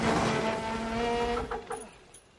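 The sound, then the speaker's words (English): In a film chase sequence, a motorcycle engine whines loudly and steadily for over a second, then gives way to a few short tire skids and squeals that fade out quickly; no voices. “and then there's this motorcycle as well.”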